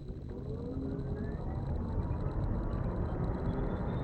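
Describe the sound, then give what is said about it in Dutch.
An electric car accelerating hard from a standstill up to a speed of 100, its motor whine sweeping steadily upward in pitch over a heavy rumble of road and cabin noise that grows louder throughout. “en hij gaat ons even laten ervaren en jullie dan indirect ook hoe het is om eh, even flink gas te geven en op te trekken met deze auto.”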